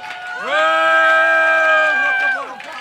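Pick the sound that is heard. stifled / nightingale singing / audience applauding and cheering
audience applauding and cheering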